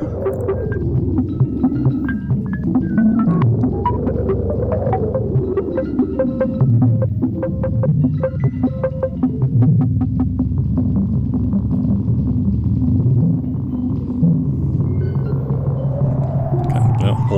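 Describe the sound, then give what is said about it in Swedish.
Experimental, psychedelic electronic music from a 1968 record, with throbbing low drones, warbling tones that glide up and down, and a long rising sweep near the end, steady and fairly loud with no voices. “kanske är en hook som behövs när musiken låter så här.”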